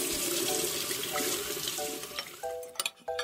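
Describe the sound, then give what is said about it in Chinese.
Water runs steadily from a tap in a hissing, splashing stream, with brief clinks and pitched squeaks near the end, as a child washes his hands before a meal. No one speaks. “他乖乖的跳下椅子，跑去洗手了。”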